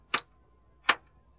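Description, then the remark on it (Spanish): Two sharp, ringing hammer strikes on metal as someone makes horseshoes, landing about a second apart at a steady pace. Fairly crisp, with quiet between blows and no voices. “Deja ya ese martillo y ven, que se va a enfriar la comida.”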